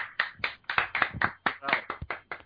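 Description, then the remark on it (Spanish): Brief applause: a quick run of sharp, bright hand claps, about a dozen over two and a half seconds, in a slightly uneven rhythm that sounds like only a few people clapping. “Un aplauso para él.”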